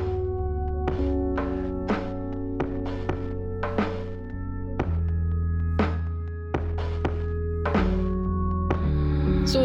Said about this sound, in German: hier ist die hundertste Demo in den letzten zwei Tagen, die an meinem äh, Häuserblock vorbeizieht. Ich hoffe, ihr hört das nicht zu stark im Hintergrund,